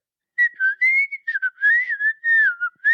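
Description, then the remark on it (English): A person whistles a quick series of chirpy, warbling notes in imitation of a bird, fairly loud, with short breaks between phrases and no talking. “makes a series of whistling sounds similar to a bird.”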